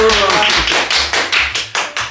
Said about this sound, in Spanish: Primero, pues, Blanquita Mireles, un aplauso, por favor. ¡Bravo!